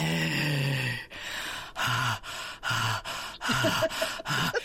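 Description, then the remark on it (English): A voice imitates heavy, creepy breathing: a series of loud, raspy inhales and exhales in an uneven rhythm, with voiced groaning edges on some breaths. “his breathing alone.”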